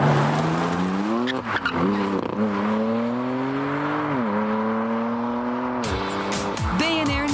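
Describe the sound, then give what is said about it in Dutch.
A BMW M4 CS sports car on a test drive: the engine roars steadily, revs rising and falling with gear shifts, while sharp tire squeals cut in repeatedly toward the end. Loud throughout, with no talking. “En we gaan rijden met de BMW M4 CS.”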